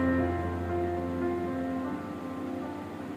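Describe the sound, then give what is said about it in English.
A steady stream of water pours into a plastic plant bottle used for growing a lobia plant, a continuous splashing gurgle lasting a few seconds with a faint tonal hum underneath and no talking. “See I make my plant bottle. Water is ready. Now I am putting the water.”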